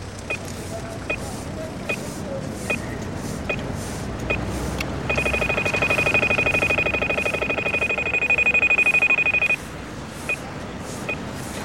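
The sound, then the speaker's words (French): An audible pedestrian crossing signal in Brussels sounds a loud, rapid, high-pitched beeping for about four seconds, meaning pedestrians may cross, over steady street traffic noise, with slower, sparse ticks before and after. “Quand c'est voilà, ça, on peut traverser.”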